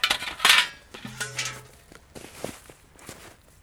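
A metal sap bucket clanks and rattles as it is hung onto a tap on a tree, where a spile has been inserted and sap is dripping out. One knock gives a brief ringing metallic tone, followed by a few lighter taps and scrapes.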